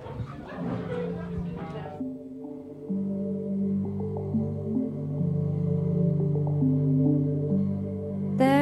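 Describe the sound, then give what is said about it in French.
An instrumental song intro plays, steady sustained notes stepping between pitches at a moderate, even volume, following a brief rougher, noisier burst at the very start. “je vous propose une autre lecture, mais une lecture de notes de musique par des instruments. Ça s'appelle, ça s'appelle une chanson, quoi.”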